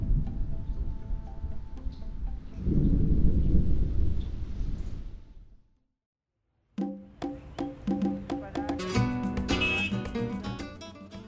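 Heavy rain hisses under a deep rumble of thunder that swells loudly, then fades out. After a short silence, music begins.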